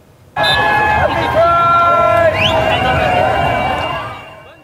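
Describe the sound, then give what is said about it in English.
A large crowd of thousands of spectators lining the streets at Montreal's annual Pride Parade cheers and shouts loudly outdoors as the Prime Minister marches, with high whistles and voices rising over a steady roar of noise that starts abruptly and fades slightly toward the end. “Thousands of cheering spectators lined the streets as the Prime Minister marched alongside his wife, Sophie, and as well as Quebec Premier Philippe Couillard.”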